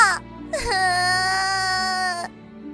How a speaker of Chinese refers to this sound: 女生又急又怕，也跟着哭了起来。